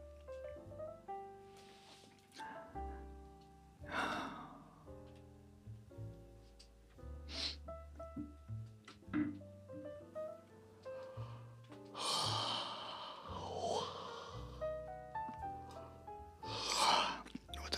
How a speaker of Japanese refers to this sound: ぐらいじゃないのかな配信中にずっとあくびしてるポッドキャスト すいませんねほんと皆さんあくびすると映る人ですか皆さん